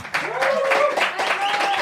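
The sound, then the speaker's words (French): An audience of about 200 in a workshop applauds as a speaker is welcomed to the mic, a dense, steady wash of clapping lasting a couple of seconds, with a high whistle and some cheering voices rising above it. “Vous pouvez applaudir hein, dans le public, ça fait genre.”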